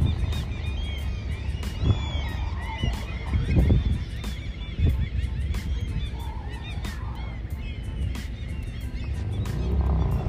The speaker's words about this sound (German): Ja, hier sind noch viele Möwen. Die kann man anders erwarten am Wasser und an der Insel.